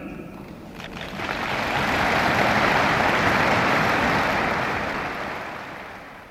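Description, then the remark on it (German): Strong applause from a large crowd of delegates at the ÖTV trade union congress, greeting words of DGB chairman Willi Richter; a dense wash of clapping that swells to a steady peak over a few seconds, then gradually tapers off. No one speaks over it. “Der starke Beifall, mit dem die Delegierten des Gewerkschaftstages der ÖTV diese Worte des DGB-Vorsitzenden Willi Richter begrüßten, beweist, welche Empörung der Menschenraub die Verschleppung Heinz Brands bei den Delegierten ausgelöst hat.”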